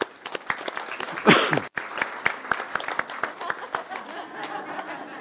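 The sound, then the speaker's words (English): A church audience at a service bursts into a round of applause, many hands clapping in dense, crackling overlapping bursts with a louder swell early on, then settling into steady clapping with scattered chuckles and murmurs. “So I want you to put your hands together, a warm round of applause for Barnabas.”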